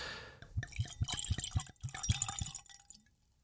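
Cold cherry mead, a fruity mead fermented with cherries or mixed with cherry juice, pours into a wine glass, a series of glugging, dripping splashes over about two and a half seconds before trailing off. No voices.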